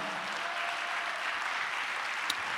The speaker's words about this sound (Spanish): Dale un aplauso a Dios por eso, amados hermanos.